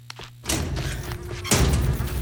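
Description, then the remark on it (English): A back door thuds shut, a heavy low impact followed about a second later by another dull bang and a lingering rumble, with no voices. “Boomer leads Chet out the back door where, of course, Boomer has been letting the super trash pile up.”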